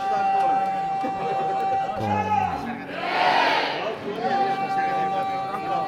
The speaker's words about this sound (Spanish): gritos de fondo se calienta la cosa.